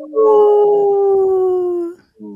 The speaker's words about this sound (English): There's that wolf.